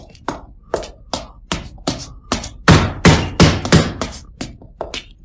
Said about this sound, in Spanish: Oyó a alguien llamando a la puerta principal y unos golpes dados en ella con los nudillos, cada vez más fuertes